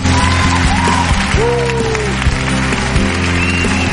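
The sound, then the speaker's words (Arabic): A crowd applauds loudly and steadily for several seconds on a live radio broadcast for a child caller on Mother's Day, dense clapping mixed with a few whoops and shouts. “شوف كيف بصفق لك يا سالم”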